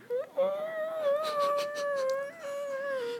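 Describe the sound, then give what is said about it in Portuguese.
A person imitates a dolphin with a sustained, high-pitched, wavering squeal that holds steady for about three seconds, clear, with a few brief rises in pitch near the end. “Eu tentei, eu tentei imitar um golfinho, não deu certo.”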